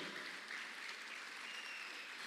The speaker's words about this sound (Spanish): Vamos, dele palmas fuerte al Rey de la Gloria.